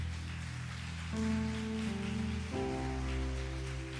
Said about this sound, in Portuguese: Se você crê nisso, eu posso ouvir uma salva de palmas? mais forte.